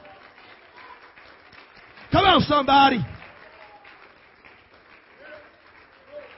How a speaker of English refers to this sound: Come on, give the Lord a hand clap tonight.